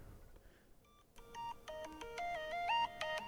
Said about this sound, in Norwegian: Uh, så jeg har liksom lagt opp noen alarmer, da. Uh, så den første okay. Jeg kan jo vise den første jeg får. Det er klokka ni på morgenen.